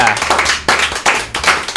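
An audience applauds, a dense, steady wash of many hands clapping that swells in a few renewed bursts over just under two seconds, fairly loud throughout.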